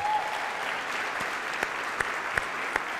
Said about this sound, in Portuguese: Dê um forte aplauso a Jesus, vai lá.